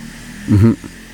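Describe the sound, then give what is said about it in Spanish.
A motorcycle outside, of the neighbours of Casa Perrito, gives a short, low, buzzing engine rev that swells briefly and fades, heard on its own against quiet background hum. “Eh, una, moto viajando en el tiempo.”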